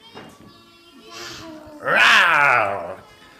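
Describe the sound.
A voice imitates a lion's roar: a rising, strained growl that swells loudly for about a second, then fades, preceded by softer vocal sounds.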